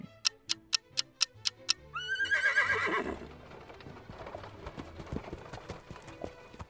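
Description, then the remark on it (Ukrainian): A horse-drawn carriage with a black horse pulls up and stops right beside a building site: a steady run of about seven crisp hoof clip-clops, then a loud, shrill, wavering horse neigh, trailing off into softer clattering and rattling. “Коли бричка з чорним конем зупинилася зовсім поруч з ділянкою”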